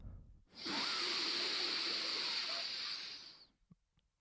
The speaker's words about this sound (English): So we press down on the right nostril. And now, if we close our mouth, we're only capable of breathing through our left nostril. So we breathe in through our left nostril.